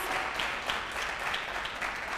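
A church audience claps for the Lord Jesus, a dense, continuous patter of many hands at moderate volume with no voices rising above it.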